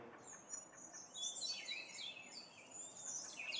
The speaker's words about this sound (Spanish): y escucha. Escucha los sonidos de esta naturaleza a lo lejos. Yo no sé realmente si el micrófono lo pueda captar y tú estés escuchándolo, pero a lo lejos, más allá del canto de estas aves, se escucha el rugir del río.